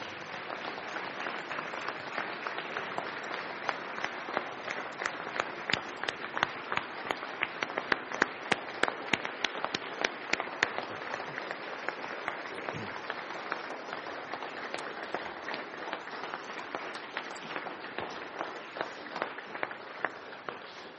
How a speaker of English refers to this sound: Let's give a big applause.